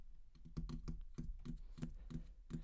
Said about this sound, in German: Aber ich konnte mich nicht ganz konzentrieren, weil ich von draußen auf der Straße komische Geräusche gehört habe. Es war wie so ein Klackern als würde jemand irgendwie so auf einer Tastatur tippen